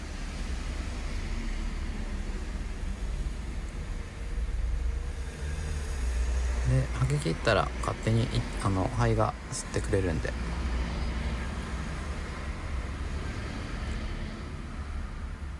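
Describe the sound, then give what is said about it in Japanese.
A steady, low rumble of cars passing by outside, continuous throughout, with a person speaking briefly over it partway through. “この車の通る音入ってるんですかねこういう音もなんかちょっと心地いいですね”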